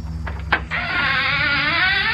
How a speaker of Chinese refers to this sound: 那是门打开的声音。